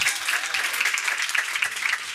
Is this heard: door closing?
no